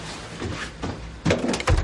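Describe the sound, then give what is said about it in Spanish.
A house door is opened by someone going out, with a low creak and rustle, followed by two heavier thuds near the end, each with a short rumbling resonance. No one speaks. “Al abrir, se encuentra por sorpresa con Davy”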